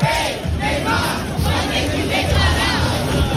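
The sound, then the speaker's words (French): A large street crowd of Lula supporters in Rio de Janeiro, Brazil, chants and shouts taunts at Neymar on the night of the presidential election, loud, a dense unbroken roar of many voices with rising yells throughout, sounding jeering and rowdy. “il s'est fait chauffer euh, par les, partisans de Lula la nuit dernière”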